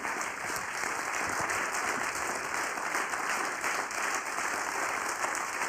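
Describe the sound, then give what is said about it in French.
Sustained audience applause, a dense steady wash of many hands clapping at an even loudness for several seconds with no voices rising above it. “Et peut-être même que les applaudissements vont, vont vous faire chanter.”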